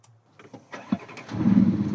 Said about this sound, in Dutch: Ja, acht cilinders, V8.